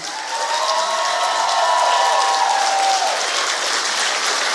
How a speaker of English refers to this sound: If you will, please come on and stand to your feet, and let's clap it up and clap it up and welcome the Mr. and Mrs. of the Hour